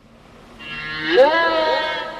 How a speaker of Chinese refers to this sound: 现在，让我们像自由潜水者一样。听听海洋里鲸鱼的声音。